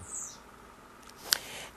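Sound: small bird chirping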